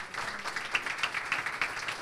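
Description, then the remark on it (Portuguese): A church audience gives a round of applause for Jesus, a dense, steady wash of many hands clapping with a few sharper claps standing out, filling the whole short stretch. “Vamos dar mais uma salva de palmas para Jesus.”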